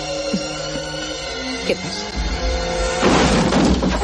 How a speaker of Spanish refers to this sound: Los hombres irrumpen en la habitación derribando la puerta y pegando tiros.